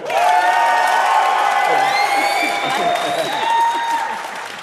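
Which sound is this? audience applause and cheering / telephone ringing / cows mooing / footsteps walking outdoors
audience applause and cheering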